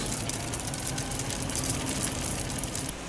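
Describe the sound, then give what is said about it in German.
A dense, continuous patter of 1-cent coins pouring out of a large minting press at the Münze Österreich mint in Vienna, like a metallic shower, steady and fairly loud over a low mechanical hum, with no voices. “Ein Cent ist drauf, es sind 1 Cent Münzen, die aus der großen Prägemaschine rieseln wie ein Wasserfall aus lauter kleinen Kupfertropfen.”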